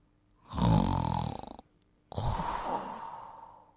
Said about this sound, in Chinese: 当然是呼噜声啦！